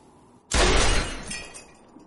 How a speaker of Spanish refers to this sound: En la calle nieva, Jack dispara unas botellas y unas latas.